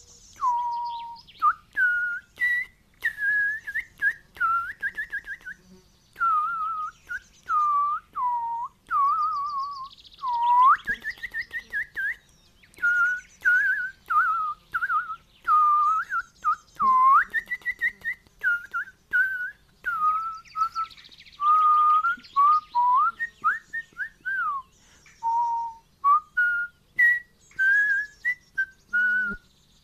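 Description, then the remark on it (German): A song to be guessed is whistled as a chirping tune in short, warbling phrases, mostly mid-high in pitch with quick upward flicks, like birdsong, with brief gaps between bursts and no talking. “Äh, Nanu, wer zwitschert denn da?”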